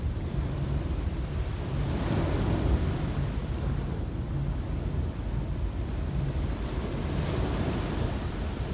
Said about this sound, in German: und das Meeresrauschen. Bringt dich ganz in den Moment. Du bist im Moment. konzentrierst dich nur auf das Rauschen des Meeres, auf die Wellen